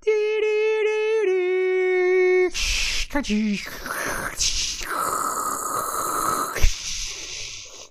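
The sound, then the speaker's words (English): A person vocally mimics a dial-up modem connecting: a steady sustained tone and shifting beeps, then harsh hissing, screeching static bursts, loud, with no other talking. “Uh, will you make the modem sound …?”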